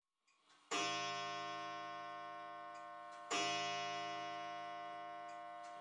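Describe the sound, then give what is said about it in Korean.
An old clock inherited from parents chimes twice in a living room, a few seconds apart, with a nasal tone. Each loud, resonant strike rings out with a long, slowly fading tone, followed by wheezing. No voices are heard. “주스티나가 부모님에게 물려받은 낡은 시계가 거실에서 코맹맹이 소리로 아홉 번 종을 울린 뒤 천식 환자처럼 한참 동안 씩씩거렸다.”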